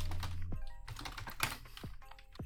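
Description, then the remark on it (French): Typing on a computer keyboard, a run of quick plastic key clicks in an uneven rhythm, with a low steady hum underneath and no one speaking. “Vas-y, fais, ton petit bruit de clavier, vas-y.”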